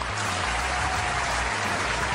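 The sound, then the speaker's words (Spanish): Steady, dense applause for music-video director Michelle Gondry from many hands clapping at once, a loud continuous crackle of claps that fills the short stretch without any voices. “Por favor, Michelle Gondry, aplausos de pie. Y con los pies y con las manos.”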